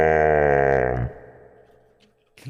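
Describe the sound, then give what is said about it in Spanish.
A deep, pitched-down electronic voice of a person speaking through a voice modulator lets out one long, loud, buzzing, ogre-like groan for about a second, then cuts off into a quiet tail with a brief knock at the end. “¿Te has puesto un modulador?”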